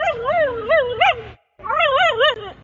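A dog whimpers and whines in wavering, high-pitched cries with a few sharper yips, in two bursts separated by a brief pause.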